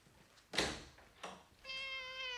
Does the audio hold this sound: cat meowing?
yes